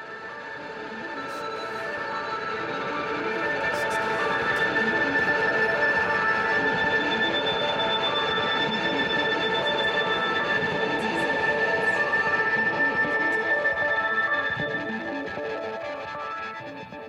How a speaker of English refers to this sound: at the end, the big crazy synth washes that are, is, is, kind of the sound of the, the monorail at the end, you know, swishing through whatever whatever you know futuristic monorail system. Uh, that that that all turned out really well.